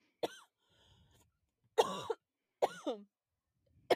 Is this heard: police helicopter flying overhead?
no